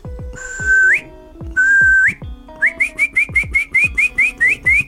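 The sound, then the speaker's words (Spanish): A person whistles in imitation of a small bird: two long rising whistled notes, then a quick series of about ten short chirping whistles in steady rhythm, clear, with no talking. “¡Un pajarito!”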